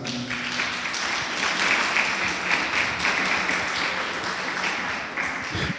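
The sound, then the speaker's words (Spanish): An audience breaks into sustained applause for God, dense overlapping clapping that holds steady and fairly loud for about six seconds with no speech over it. “¿Cuánto le pueden dar un aplauso a Dios, hermanos?”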